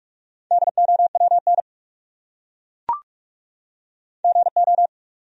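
Rapid Morse code beeps sent at 45 words per minute in a steady mid-pitched tone, spelling a word as two quick bursts of dots and dashes with a silent gap and a brief click between them. No voices.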